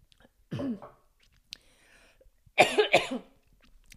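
A person coughs: one short cough, then a quick double cough a couple of seconds later, with quiet breathing between and no talking.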